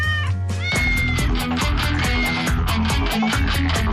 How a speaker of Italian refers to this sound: Quella per i gattini invece esiste già e si chiama YouTube. Eccoli, sentite? I gattini YouTubers.